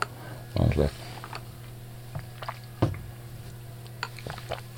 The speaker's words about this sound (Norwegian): Jeg sytta just på sugerøret. Jeg er sikker på den lyden der var skikkelig bad.